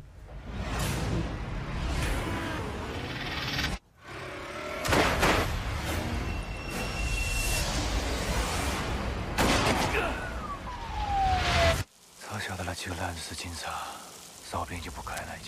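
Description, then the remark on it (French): Loud, dense action-movie trailer audio: rapid gunfire bursts, whooshing swishes and crashing impacts, with abrupt cuts between segments and a falling whistle-like sweep, plus snatches of voices under the din. “on écoute la bande-annonce.”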